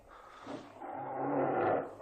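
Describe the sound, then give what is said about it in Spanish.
A tiger's deep, rasping roar swells over about two seconds, growing louder toward the end before easing off, forceful with no voices. “en toda Asia, se enfrentarían a un tigre cuerpo a cuerpo.”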